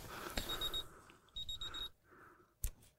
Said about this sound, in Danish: Så biber uret. Nu biber uret